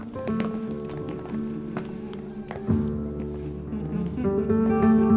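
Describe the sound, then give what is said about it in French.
An acoustic guitar plays a steady run of plucked notes and chords, fairly loud and alone, with bright ringing harmonics and a slight swell in volume toward the end. “J'entends de la musique. On dirait le son d'une guitare.”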